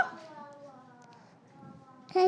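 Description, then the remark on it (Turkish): A child's voice makes a steady, droning 'bız bız' buzz in imitation of a queen bee, held for about two seconds, before a louder voice cuts in at the very end. “Bız bız diyor değil mi? Aferin sana. Bir daha çıkarmak ister misin arı sesi?”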